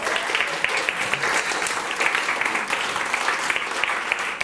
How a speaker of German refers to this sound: Und ich glaube, ihr seid auch glücklich mit eurem Pastor oder nicht. Könnt ihr vielleicht mal einen Applaus geben, wenn das so ist.